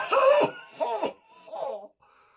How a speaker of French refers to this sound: Comme indiqué à la télé, il se met à tousser dans son coude, alors que sa voisine le regarde avec des yeux effrayés.